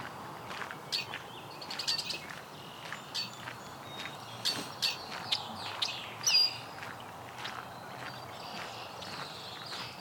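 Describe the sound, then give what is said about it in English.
Red-winged blackbirds call back and forth in a busy outdoor chorus, with sharp chips and short buzzy notes over a steady background hiss. “arguing blackbirds.”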